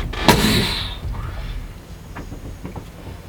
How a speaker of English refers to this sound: Door slams.